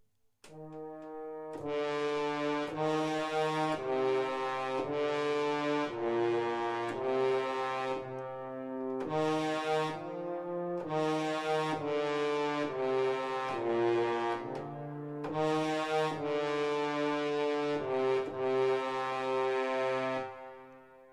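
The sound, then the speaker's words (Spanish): A synthesizer imitating French horns plays the Dies Irae motif from the fifth movement of Berlioz's Symphonie fantastique, sustained and brassy in steady phrases, loud and rich with harmonics, repeating its pattern twice with no one talking. “Bueno, no, lo voy a hacer en un sintetizador que simula cornos franceses.”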